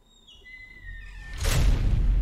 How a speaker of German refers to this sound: Und ihr hört ein reiben. Die Tür schließt.